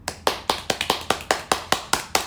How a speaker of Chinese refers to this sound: 掌声响起，接着就是大家的欢呼声。